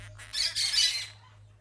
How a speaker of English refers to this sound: And I want a parrot because I like pirates, but they don't have any parrots at the Kmart. Instead, I get a pretty blue parakeet